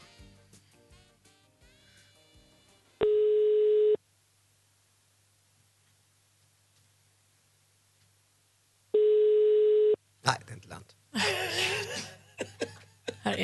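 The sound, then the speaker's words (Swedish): Telephone dialing from a studio to call a nominated woman is followed by two long, steady ringing tones, each about a second, separated by a quiet pause, and then laughter and chuckling break in. “Man vill ju inte slå fel nummer, det är ju så himla tokigt.”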